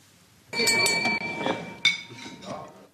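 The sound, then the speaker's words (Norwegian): In a scene from the 1998 Danish Dogme film Festen, a glass is tapped several times in quick succession to call for a toast, each strike ringing out clearly with a bright, lingering tone, against a background murmur of many people. “Jeg vil gerne utbringe den første skål.”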